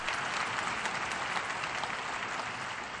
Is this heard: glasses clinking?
no